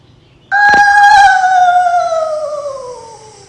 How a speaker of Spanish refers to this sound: Juana sin miedo se dispuso a pasar la primera noche en el castillo. La despertó un alarido impresionante.